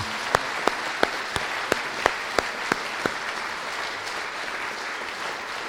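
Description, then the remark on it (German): A crowd at a radio station's anniversary celebration applauds in a steady wash of clapping, with about ten sharper, evenly spaced claps standing out over the first three seconds before the applause carries on more softly. “Einen kräftigen Applaus für die Hauptakteure zu Hause.”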